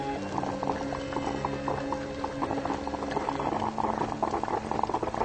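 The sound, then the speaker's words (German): A coffee machine hisses and bubbles steadily, a dense, continuous boiling gurgle with rapid popping bursts, fairly loud, with no voices. “Was, du fauchst? Bestie. Willst du mir Angst machen? Bist doch eine gute Kaffeemaschine, nicht wahr?”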